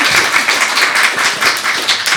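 audience applause

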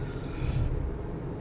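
yawning

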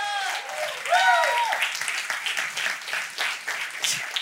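audience applauding

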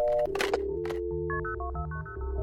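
telephone keypad dialing tones

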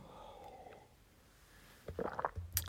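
sipping tea

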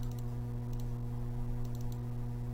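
computer mouse double-clicking

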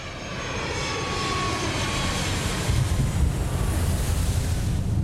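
airplane engine

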